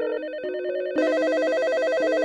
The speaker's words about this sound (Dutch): telefoons stonden overal rood gloeiend.